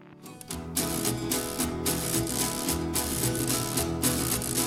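A lively skiffle recording with fast strummed guitar, a busy scratchy rhythm and thumping bass, played loud and steady throughout after a brief quieter start, with no singing yet; skiffle as played by John's first group, before a band and before rock and roll.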